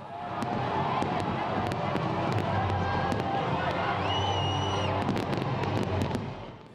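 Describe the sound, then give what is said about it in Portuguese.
A huge crowd of more than 2 million people roars and cheers at the end of the New Year countdown in a steady, loud wash of noise, punctuated by sharp firework bangs and crackles, with a brief whistle rising above the din. “No final da contagem regressiva, a emoção e a alegria de mais de 2 milhões de pessoas.”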